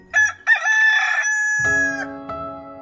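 A rooster crows once, loud and close, opening with two short bursts before a long, drawn-out high note that fades as lower tones come in underneath.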